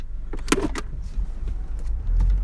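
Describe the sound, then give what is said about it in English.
A few sharp mechanical clicks and clunks from a car's gear shifter while the car is being driven, clustered near the start with fainter ticks after, over a steady low engine rumble. “We're driving, and you, you hear the noise that that's making now. My shifter.”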